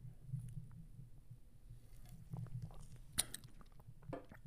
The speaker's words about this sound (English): Um, I'll take another sip right now for you.